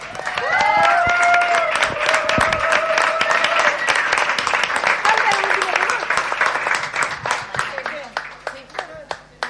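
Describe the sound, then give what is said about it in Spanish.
A live audience at a live evening show breaks into steady, dense applause for the women performers, with cheering and whooping voices on top, the clapping holding strong before thinning out toward the end. “Un aplauso para ellas.”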